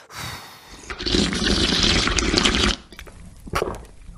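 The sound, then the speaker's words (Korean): A long, forceful slurp of hot soup broth, a loud wet rushing draw lasting nearly two seconds, followed by a couple of short sipping smacks. No one speaks. “국물도 먹어야 돼요. 이거 뜨거우니까.”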